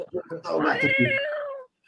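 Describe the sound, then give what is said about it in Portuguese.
A single long, drawn-out cat meow rises and then slowly falls, loud, following a few quick bursts of a person's voice. “Gato, o nome dele é gato, com TH.”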